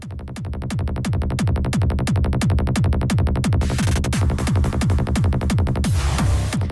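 A pop music track plays loudly and up close, driven by a steady, punchy kick-drum beat with bright hi-hats and sustained synth tones, briefly swelling with a noisy sweep near the end.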